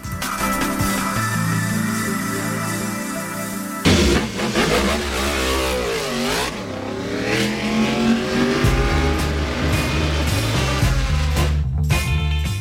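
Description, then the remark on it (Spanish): Motorcycle engines rev loudly and continuously, their pitch climbing and dropping in sweeping surges as several machines overlap, with a sharp burst partway through and no talking. “las motos.”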